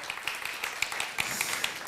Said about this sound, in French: bravo pour votre travail. Nous vous applaudissons. Merci.